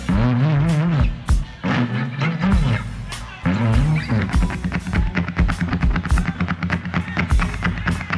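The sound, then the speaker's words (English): A voice imitates a car's big 472 V8 engine cranking after the carburetor is primed with gas, catching and settling into a loud, throaty idle rumble, with sputtering revs and a steady growl that continues to the end. “You know that 472 engine just sit there and rumble like that, you know.”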